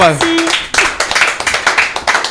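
A short burst of applause: several people clapping in a quick, steady patter that stays fairly loud, starting just after a brief vocal sound at the beginning.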